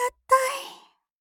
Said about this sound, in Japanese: もう一度あくびをして、彼女はニコリと笑う。